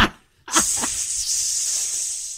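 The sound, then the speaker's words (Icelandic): Strong wind of about 20 metres per second, heard inside a studio, rushes in a steady, loud, hissing roar that starts abruptly and holds unbroken to the end, with a couple of brief vocal sounds near the start. “það er vindurinn í stúdíun, heyrum það ég er að reyna að segja þetta það er bara einhver, það er 20 metrar á sekundin innu það heyrist ekkert sem ég segi”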